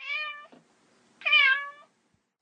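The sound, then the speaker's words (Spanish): A cat meows twice, close and clear, each call a drawn-out, tonal mew with a short pause between them, followed by the brief start of another sound at the very end. “bueno, vamos a empezar a hablar con la más típica y la más conocida, que es la de El Gato Negro.”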